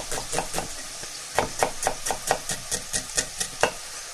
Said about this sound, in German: Dann kann man ein bisschen abtropfen, während die Zwiebeln anschwitzen.